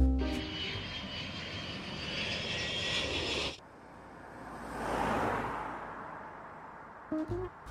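A loud airplane engine roars with a steady high whine, then drops away and a second rushing swell passes overhead, rising and fading as it flies by.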